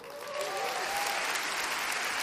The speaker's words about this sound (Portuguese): Eu disse no outro dia, acho que foi hoje ou ontem, não sei, um dia desse, que a gente desse uma salva de palmas à turma que está assistindo pela telinha. Vamos lá?